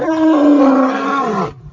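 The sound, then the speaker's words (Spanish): A single loud, sustained roar from a human voice, rough and throaty, holding for about a second and a half before cutting off abruptly, with no talking over it. “De rugir totalmente.”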